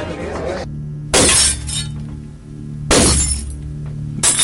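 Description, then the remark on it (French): Electric light bulbs burst twice, about two seconds apart, each a sharp, loud glassy pop with a brief tinkling tail, over a steady low electrical hum. “Les ampoules électriques éclatent”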